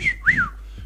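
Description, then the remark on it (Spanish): A person whistles briefly: a steady high note followed by a quick upward-then-downward swoop, all within about a second, with no talking over it. “Pégate un chiflido.”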